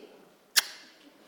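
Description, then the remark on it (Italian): A single sharp, wet kissing smack made with the mouth, a voice imitating a cheek kiss, fairly loud, with a short tail and near-silence around it. “No, un bacio che in teoria è guancio, fa così”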